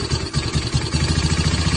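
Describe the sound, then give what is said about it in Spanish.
A motorcycle engine idles roughly, its low throbbing pulses steady but uneven, with a rattling vibration running throughout the short stretch and no voices. “fíjate que esa moto como que necesita ah, un su servicio e irle a comprar repuestos vos”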